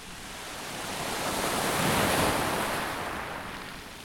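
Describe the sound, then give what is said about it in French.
Waves break on the shore in a broad hiss of surf that swells to a peak midway and then recedes, close and steady, with no voices. “Je me suis assis et j'ai regardé les vagues s'échouer près de moi.”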